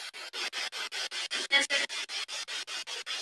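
Choppy radio static from a spirit box during a live paranormal session, rapidly sweeping through stations, bursting in short, even pulses about five times a second, with brief garbled fragments surfacing midway. Steady, no clear talk.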